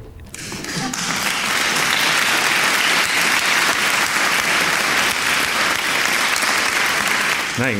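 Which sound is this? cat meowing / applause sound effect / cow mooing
applause sound effect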